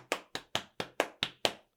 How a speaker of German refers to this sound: einfach so einen Klatschrhythmus machen.